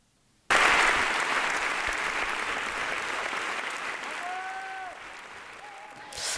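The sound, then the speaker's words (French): A standing theatre audience bursts into loud, dense applause as the lights come back up after the dance show Siguifin, holding steady for several seconds, with a couple of high, piercing whistled cheers rising above the clapping toward the end. “Voilà, dans une acclamation générale, les lumières se rallument, la salle entière est debout, le public est enchanté.”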